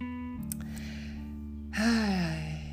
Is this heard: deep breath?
yes